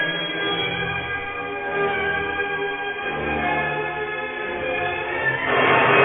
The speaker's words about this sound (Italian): quindi c'è proprio il massimo della potenza, dell'espressività, solo un ottavino che è un flauto così piccolo per farsi sentire, sentite come strilla.